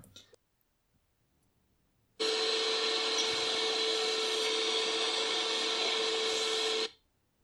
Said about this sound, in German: Staubsaugergeräusch? warum hast du ein Staubsaugergeräusch angemacht? Warum, warum habe ich ein Staubsaugergeräusch angemacht?